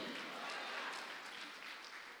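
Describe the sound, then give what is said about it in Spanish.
An audience applauding together for the King of Glory, a dense, steady wash of many hands clapping at once, sustained at an even loudness for a couple of seconds with no voices standing out. “Dele palmas al Rey de la Gloria.”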